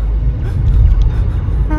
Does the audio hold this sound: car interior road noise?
yes